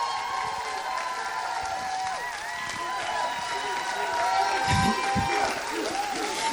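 A crowd breaks into loud, sustained applause mixed with cheering and whoops, a dense steady roar of clapping that swells slightly toward the end, with scattered shouts rising above it.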